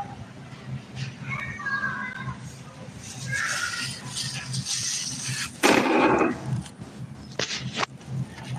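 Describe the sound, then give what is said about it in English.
A child wails somewhere in the background, a few drawn-out, high-pitched cries rising over a murky hum, with shuffling noise and a sudden louder rustling burst partway through. “sounds like there's a wailing special needs kid in the background.”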